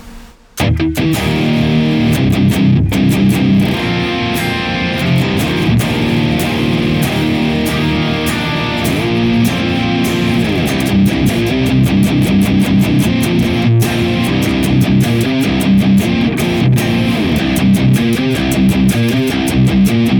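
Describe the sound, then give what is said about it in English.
A heavily distorted electric guitar plays a thick, fuzzy riff with sustained chords and chugging rhythms, loud, with no talking throughout. It blends a Klon Kraken on the left channel, in the Neural DSP Archetype Nolly, with a Big Muff Pi op amp through a 6L6 power tube section into a Mesa oversized cabinet on the right. “blend our Klon Kraken on the left, and on the right hand side, we're going to have the Big Muff Pi op amp”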